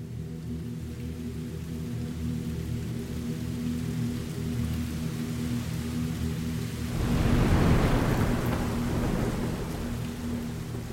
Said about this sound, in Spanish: Un trueno en el oeste anunció la proximidad de la tormenta y la noche. El cielo se hizo más oscuro. La lluvia cayó.